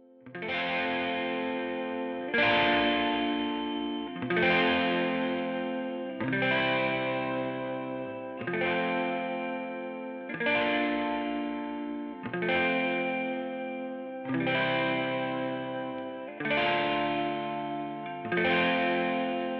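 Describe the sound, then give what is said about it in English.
A simple electric guitar part in a song, slightly distorted and effect-laden, strums a sustained chord roughly every two seconds in a steady, full-sounding pattern with no voices. “I also added in a simple electric guitar part to give it a little bit more fullness and energy.”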